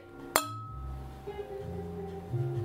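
A single bright clink of glasses in a toast rings out, followed by a sustained ringing tone and low harmonic hum that lingers underneath. No one speaks.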